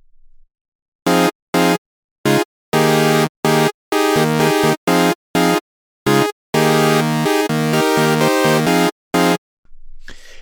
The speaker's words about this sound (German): Ich habe hier einen kleinen Track vorbereitet. Den habe ich eingespielt, nur mit dem Retrolog und einem Sägezahn.